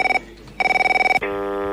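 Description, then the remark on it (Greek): An electronic telephone rings in short, rapidly warbling bursts with a brief pause between them, then gives way to a steady, buzzy tone. It is fairly loud, with no talking. “Κάνω να σε πάρω από το κινητό.”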